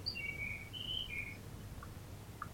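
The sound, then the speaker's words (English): A bird chirps faintly, a few thin, high whistled notes in quick succession, then two soft short peeps later, all over a low steady background rumble with no talking. “What bird is that?”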